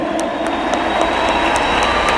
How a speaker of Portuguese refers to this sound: Pode bater palmas se você quiser, porque isso vai acontecer.